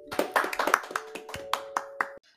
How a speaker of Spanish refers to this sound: El día de hoy tenemos una invitada muy especial, pero antes un fuerte aplauso.